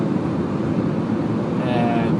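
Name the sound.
car interior road noise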